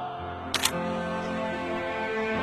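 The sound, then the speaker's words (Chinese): A quick double click of a camera shutter taking a group photo, two sharp bright snaps in rapid succession, over a steady low background hum. “那我来拍，来来来，一、二、三，拆呀！”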